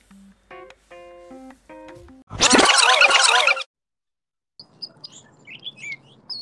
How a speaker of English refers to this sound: Probably should move inside where this bird isn't making all this noise. Yeah, I can hear. It sounds lovely though. Just birds chirping in the background.